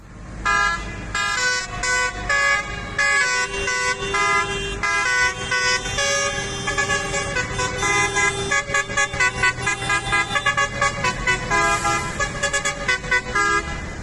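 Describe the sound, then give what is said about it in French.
A crowd of large tractor horns blares nonstop at a farmers' protest in a small German town on 22 January, long overlapping honks and shorter toots stacking into a loud, chaotic chorus over a low engine rumble, with no one speaking. “Alors c'est plus facile au volant de gros tracteurs, comme ici euh, dans une petite ville allemande, c'était le 22 janvier, alors c'est parfois moins harmonieux.”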